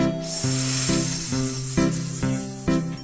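A snake's hiss, a steady, airy, high-pitched rush lasting throughout, with a string of short pitched tones stepping along beneath it at a quick, even pace.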